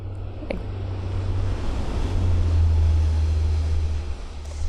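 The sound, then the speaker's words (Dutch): A train approaches, heard from within a forest, with a deep, steady low rumble and a broad roar that swells to a peak, then begins to ease off. No one speaks. “Oh, daar komt de trein aan.”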